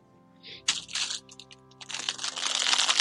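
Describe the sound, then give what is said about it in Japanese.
Crisp crackling and crinkling of a heat-resistant paper cup being handled before making coffee, a few sharp crunches early on, then a denser continuous rustle building toward the end, with no talking. “とりあえず今からね、この耐熱紙コップでね、コーヒーを入れる時間を”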